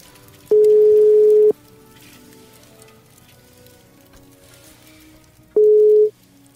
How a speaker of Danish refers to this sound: har sådan et intimistisk system her med en telefon, der er tilkoblet min computer, og trykker jeg nummeret ind.